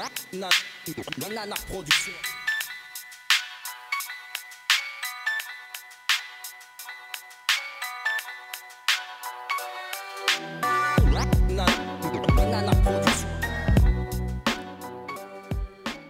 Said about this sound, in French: Pour les pauses musicales, vous l'avez entendu